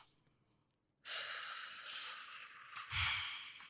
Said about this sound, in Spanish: Entonces lo pones abajo de tu clavícula, sí, y te empiezas a pegar así, pero más despacio y respirando.